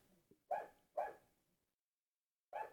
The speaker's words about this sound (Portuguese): Cachorro do caralho de cachorro, velho. Filha da puta de cachorro. Vocês estão ouvindo o cachorro? Ô desgraça, viu?